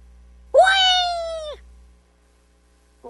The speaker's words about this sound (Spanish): Es un gato, este es un, el gato volador. El gato volador, bueno, correcto.